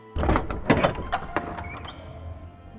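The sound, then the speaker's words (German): Several firm knocks on a door in quick, slightly uneven succession, fairly loud, then the raps stop and a faint steady tone lingers. “Wie ich's Wasser aufsetz, klopft's an der Tür.”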